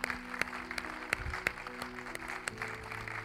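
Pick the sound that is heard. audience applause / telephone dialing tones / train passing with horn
audience applause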